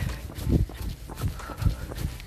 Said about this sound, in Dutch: Lekker rennen. Kijk om je heen. Adem. En tijdens het ademen en het rennen, dan hoor je dat je voeten een ritme maken. En je adem ook.